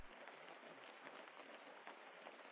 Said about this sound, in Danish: Det er aften, og det regner en lille smule.